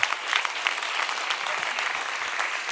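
A crowd claps steadily in a dense, continuous burst of applause, many hands close together for a few seconds without any speech over it.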